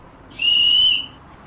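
A traffic police officer (signalman) in Lisbon blows his final whistle: a single shrill whistle blast, loud, held steadily for just over half a second before cutting off, with no voices around it.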